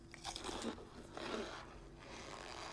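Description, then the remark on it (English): Crunchy chewing on a dense block of corn starch, with two or three squeaky, crumbling bites in a row against a low background hum. No one speaks. “Yeah, and it makes a really weird noise when people eat it.”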